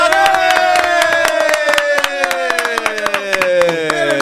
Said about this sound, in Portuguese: Uma salva de palmas!